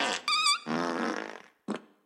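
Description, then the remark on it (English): A string of loud fart noises: a hissy start, a long buzzing rumble that trails off, then a short sharp burst after a brief gap, with no talking. “And a couple fart noises.”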